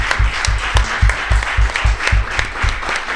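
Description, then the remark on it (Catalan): An audience applauds loudly, the clapping falling into a steady, rhythmic beat of roughly four claps per second over a dense wash of hand claps, with no talking. “Magnífic, un gran aplaudiment, si us plau, per al Toni i la Cristina.”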